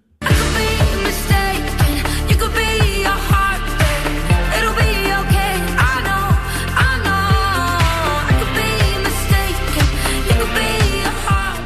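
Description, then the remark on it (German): An upbeat pop track with a woman singing over a steady, punchy four-on-the-floor beat and bright synths, loud and continuous from start to finish. “Es geht da nicht irgendwie um DJ oder so, sondern wirklich um die Sängerin.”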